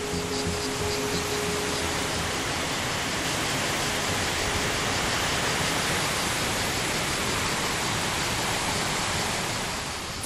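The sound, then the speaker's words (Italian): The artificial waterfall of the diverted Aniene river at Tivoli, Italy, roars steadily, a dense, unbroken wash of rushing water that fills the whole ten seconds without pause or change, with no voices heard. “Andiamo a vedere allora il ciglio di caduta artificiale, quello che Gregorio XVI regala a Tivoli, la deviazione di un fiume e una cascata”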